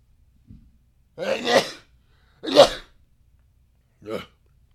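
A person sneezes: two loud, breathy bursts about a second apart, then a shorter, softer sneeze-like sound, all with a quiet inhale at the start and no talking.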